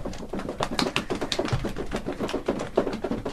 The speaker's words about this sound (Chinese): 你们如果不知道地震的声音，我们可以在座位上跺脚。来，我们一起做做看，跺脚的声音。然后呢，还可以用双手拍大腿。